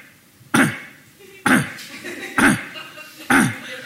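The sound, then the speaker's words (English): A person imitates a Pomeranian dog's cough with four sharp, raspy hacks spaced about a second apart, each bursting out loud, then quickly trailing off. “She opens the door, and the dog, the dog is coughing. He goes like, like”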